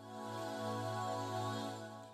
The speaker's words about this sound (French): Ah, oh, cette musique.